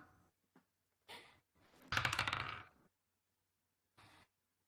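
Dice rattle and tumble across a hard tabletop in a quick clattering burst lasting about a second, landing on 18, followed by a few soft clicks and scrapes, with no one speaking.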